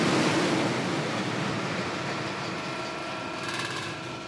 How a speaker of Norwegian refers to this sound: Det du hører her, er dieselaggregatet som driver et oppdrettsanlegg. En svær motor som lager strøm. Akkurat dette aggregatet bruker 75 000 liter diesel i året og spyr ut eksos og støy.